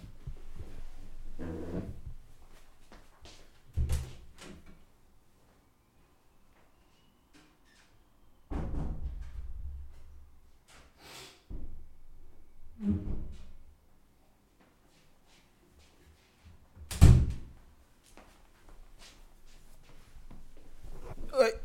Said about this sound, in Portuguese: está aqui uma porta a bater, isto está-me a meter um nojo, isto deve-me estar a dar cabo da gravação